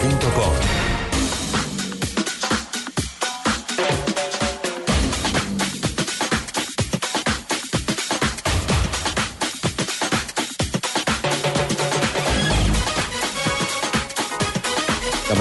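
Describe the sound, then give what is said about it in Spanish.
A loud, punchy Blue Radio station bumper for the show Autos y Motos: dense produced music with sharp rhythmic hits and crashes running steadily for about fifteen seconds, with no one talking over it. “¿Me salvas esto con una cortina, por favor?”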